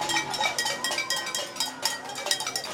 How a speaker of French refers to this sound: Et il tape sur une toute petite casserole, le genre de casserole pour cuire une très petite quantité de pâte avec une cuillère en bois.